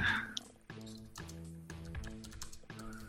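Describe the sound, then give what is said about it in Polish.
Typing on a computer keyboard to look something up, a quick irregular patter of key clicks over a steady humming tone in the background, with no one speaking. “No, będzie stukać klawiaturę, czekaj.”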